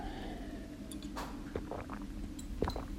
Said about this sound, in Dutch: ik pak trouwens even een slokje water voordat ik eh, begin te hoesten.